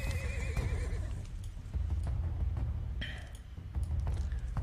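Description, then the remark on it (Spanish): A horse lets out a wavering whinny, followed later by a shorter call, while hooves clip-clop irregularly over a steady low rumble, moderately loud, as three people steal the horses. “Nos roban los caballos, ¿no? Los caballos.”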